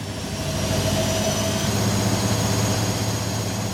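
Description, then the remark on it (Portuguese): A steady, loud roar of aircraft engines overhead as planes fly over Lisbon, a broad low rumble with a high whine on top, holding constant for several seconds with no voices. “Só neste dia contabilizaram-se 709 voos, 709 aviões sobre Lisboa.”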